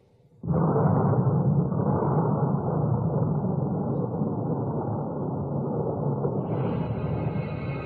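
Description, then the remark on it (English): The volcanic eruption explosion of Mount St. Helens, Washington state, on May 18, 1980, equal to 20 million tons of TNT and accompanied by a giant landslide on the north face, bursts in abruptly after a brief quiet moment, then keeps going as a loud, steady, deep roaring rumble to the end, with no voices. “On May 18, 1980, a giant landslide on the north face of Mount St. Helens in Washington state accompanied an explosion equivalent to 20 million tons of TNT.”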